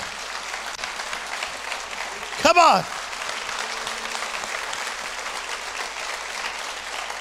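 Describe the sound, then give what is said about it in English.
An audience at a religious sermon claps for God, a steady, dense, even wash of many hands. Partway through, a man briefly calls out over the applause, which continues at the same level. “Come on, clap your hands like God's awesome.”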